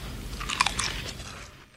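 A sharp crunch of someone biting into a crisp Lay's potato chip, a quick burst of brittle crackling followed by a few softer chewing crunches, with no talking.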